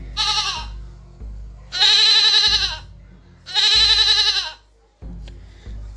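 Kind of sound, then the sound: animal, goat bleating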